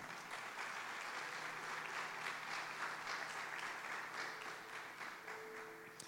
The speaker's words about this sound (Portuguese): Tem uma salva de palmas aí.